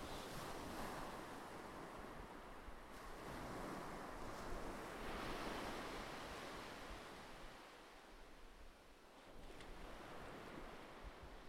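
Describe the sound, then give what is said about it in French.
Ocean waves wash and break on a shore in a steady, continuous roar of surf, swelling and receding in broad surges with some wind noise, no voices present. “Respire et laisse ton corps se détendre en relâchant toutes les contractions, toutes les tensions au son des vagues.”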